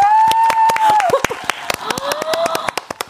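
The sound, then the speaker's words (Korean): A small audience applauds a singer's brief live rendition of a line from a musical encore, with sharp, irregular claps for about three seconds, while voices cheer and exclaim over the clapping in long, rising and falling tones. “박수!”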